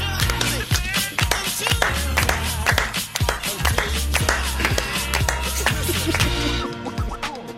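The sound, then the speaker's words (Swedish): Steady rhythmic hand claps keep time with the upbeat jingle of the good news segment on Mix Megapol radio, the sharp claps landing in a regular beat throughout and fairly loud against the music. “Yes, jätteglada nyheter om du klappar med.”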